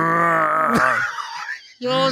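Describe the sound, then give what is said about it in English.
A person imitates a koala's grunting call with a low, drawn-out, harmonic groan that breaks off, followed by a short second rumbling burst, fairly loud. “Who's got a better koala you noise?”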